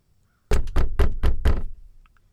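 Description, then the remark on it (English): Five loud, heavy knocks on a door in quick, even succession, forceful, followed by quiet. “He's startled by a loud knocking on his door.”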